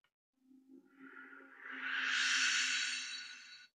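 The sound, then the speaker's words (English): A synthetic whoosh sound effect called Far Planet Beaming Number One swells over a steady low hum, building to a loud, airy peak before cutting off after about three seconds, with no voices. “Oh, it was well, a whoosh.”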